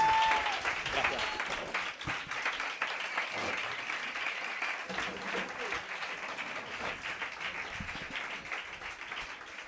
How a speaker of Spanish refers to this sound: Un fuerte aplauso a Mara Torres.